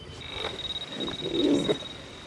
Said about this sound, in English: In case artillery fire drowns out that sound of danger, the metal detector also vibrates to warn the sappers.